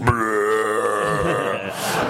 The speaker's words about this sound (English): and then in the in the other room you hear Maurice LaMarche do his Wakko Warner belch, which is